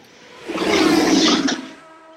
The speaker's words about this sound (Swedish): Fan, det är en motorcykeldåre som kör förbi, men motorcykeln låter mycket.